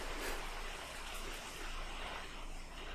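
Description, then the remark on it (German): A steady, soft hiss of heavy rain falling outside continues for the whole stretch, an even wash of noise with no voices and no distinct drops standing out. “Hörst du gerade den Regen?”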